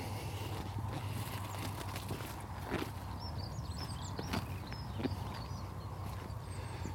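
A linnet sings, quick thin chirps and trills coming in scattered bursts over a steady outdoor rumble with occasional soft knocks.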